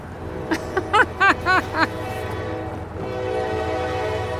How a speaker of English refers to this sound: Just then, a train horn sounds, and it's a rare sight cars full of coal as we watch them rumble by,